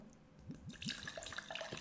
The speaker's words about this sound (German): Ich nehme jetzt nochmal den schwarzen Gin. Ja, mach das. Tu den ins Glas. Das klingt jetzt, jetzt ploppt er nämlich schon besser.